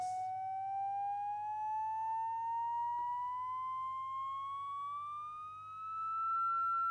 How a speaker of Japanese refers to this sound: 逆に高くしていきます波の数が増えていくとだんだんと高くなっていくのがわかると思いますさらに上げていき